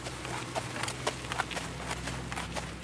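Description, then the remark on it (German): The hooves of the best-placed race horse clip-clop at a steady walking pace as it is led to a vet for a doping-control blood test, several hollow knocks in an uneven rhythm, with a low hum of background noise and no talking. “Heute kommt der Bestplatzierte dran.”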